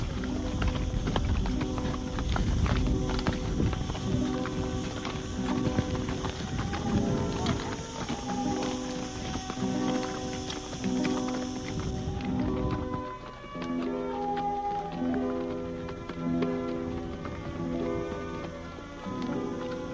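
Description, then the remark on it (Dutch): Horse hooves clip-clop steadily at a walking pace, a continuous run of clear knocks over a busy background with faint murmuring voices. “Ah, ze lopen vanzelf mee, je hebt verder weinig aan te doen.”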